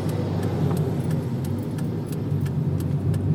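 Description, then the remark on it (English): People getting into a car, with a steady low engine rumble filling the space while keys jingle and light clicks tick irregularly throughout; no one speaks. “The shame keeps growing and growing until we get in the car”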